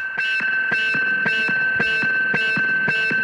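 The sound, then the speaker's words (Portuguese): A harsh electronic alarm-like sound, hidden at the end of a CD, pulses in a steady rhythm, roughly two beats per second, over a continuous high whine. It's loud and distorted, with no voices. “Escondido no fim do CD há uma espécie de um alarme e eu juro.”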